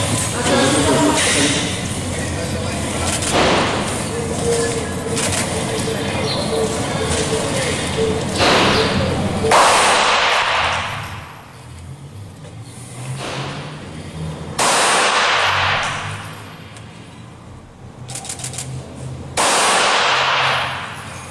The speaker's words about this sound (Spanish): Bueno, pues ahí están, ustedes lo vieron, los tres disparos. Además lo que me gustó es que se hizo a una distancia eh, lo suficientemente próxima como si fuera un ataque real.